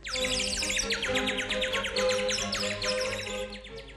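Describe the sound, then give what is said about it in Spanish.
A robin, perched on snow-covered balcony railings, sings a rapid, continuous stream of high chirps and trills, fairly loud, with no voices present. “Se sentó en las rejas del balcón, que estaba cubierto de nieve, y empezó a cantar.”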